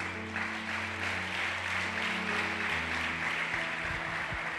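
A church audience claps steadily and densely for several seconds in praise of the Almighty during a sermon. A large crowd's applause, with sustained low keyboard chords holding underneath.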